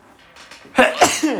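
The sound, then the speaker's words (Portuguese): A soft breathy build-up gives way to a loud sneeze, its explosive burst quickly followed by a second gusty expulsion and a brief trailing exhale. “e agora vou espirrar só aqui um breve segundo.”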